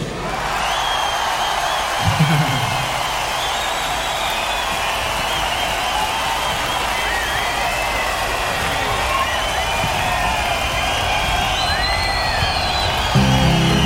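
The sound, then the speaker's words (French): A live concert audience cheers and applauds without letup as a guest singer is called up to sing the next song, a dense, steady wash of clapping and voices with high whistles and whoops rising above it. “Let's put your hands together for”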